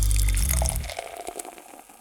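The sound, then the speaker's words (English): Beer pours into a glass, a heavy gurgling rush at first that thins into a lighter, fizzy trickle over two seconds, with no voices. “So grab yourself a glass, pour yourself a beer, and get ready to hop forward”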